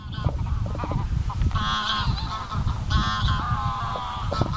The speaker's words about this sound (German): Der Chor der Gänse an der Lagune. 1000 bis 4000 Wildgänse kommen jedes Jahr auf die moorige Wiese und tauschen sich hörbar aus. Vor dem Fluss kommen sie zusammen.